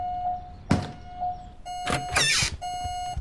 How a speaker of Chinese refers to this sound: 是你的烟雾报警器，迪丽斯。电池快没电的时候，它们就会发出那种声音。